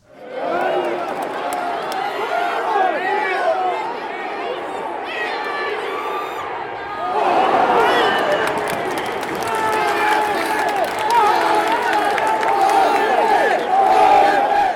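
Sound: football stadium crowd roaring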